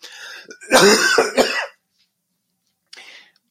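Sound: deliberate cough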